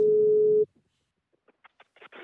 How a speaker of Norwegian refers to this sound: Mannen svarer ikke når de ringer.